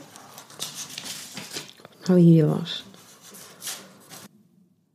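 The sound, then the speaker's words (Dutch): Steady rustling and shuffling of old papers as someone rummages through a stack, pausing briefly while a voice says a few words, then more handling before it stops. “Ria rommelt wat in de oude papieren die ze mee heeft gebracht.”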